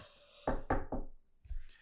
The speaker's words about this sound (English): Just as I was finishing, a knock came on the door.